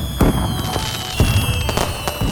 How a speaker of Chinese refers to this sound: 阿公每次带我去公园放烟火、放鞭炮。